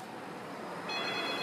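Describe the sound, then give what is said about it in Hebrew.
A steady background hiss, then partway through the high, bright ring of a public telephone cuts in and holds, moderately loud against the noise. No one speaks. “חכו רגע, הטלפון הציבורי מצלצל. יש לו צלצול של טלפון ציבורי.”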